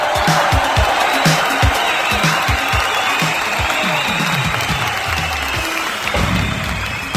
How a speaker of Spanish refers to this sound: A quien pido un fuerte, fuerte, fuerte, fuerte aplauso. Público, conocedor.